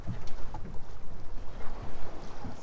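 A fishing pirogue named Baraka at sea, a steady low rumble with uneven surging pulses, mixed with wind buffeting the microphone and faint water wash. No one speaks.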